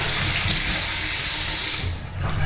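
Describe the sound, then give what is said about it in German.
Water runs steadily from a tap as hands are washed, a broad hissing splash that cuts off briefly near the end before resuming. No one speaks. “werde ich mal kurz meine Hände sauber machen”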